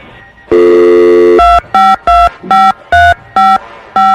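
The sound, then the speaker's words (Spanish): A steady dial tone plays briefly, then seven loud, evenly paced touch-tone beeps follow as a telephone number is keyed in to call someone's wife. No one speaks. “Vamos a marcarle a tu esposa, ¿eh?”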